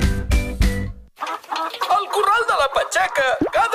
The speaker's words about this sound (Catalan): dia una gallina pon un ou.